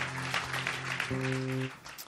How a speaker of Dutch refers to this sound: Hey, geef de band een applaus, jongens, bedankt. Let's give the band a hand.